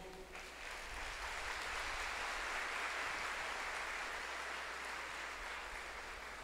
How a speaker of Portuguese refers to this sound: Aplaudamos a palavra do Senhor.